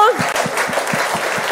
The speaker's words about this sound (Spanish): Si tú le vas a dar el aplauso.